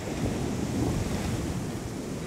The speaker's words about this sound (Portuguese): E então, ondas começaram a surgir.